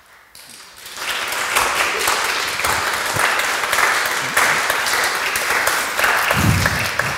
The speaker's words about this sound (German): Zehn Applaus im Gottesdienst, das gibt es wahrscheinlich auch nicht so oft, oder?